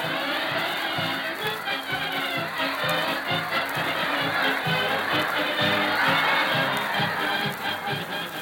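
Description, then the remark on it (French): A big wrestling crowd at the ring of the market at Atwater howls and yells continuously for several seconds as the wrestler Joffre l'Heureux passes in a silver cape. It is a dense, loud roar of many voices with some deeper tones pulsing underneath. “nous avons vu passer dans une cape argentée au parement de velours noir le beau, l'énigmatique Joffre l'Heureux, que saluait une fanfare en pick-up et les hurlements de la foule.”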